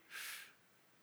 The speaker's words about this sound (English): And I'm breathing.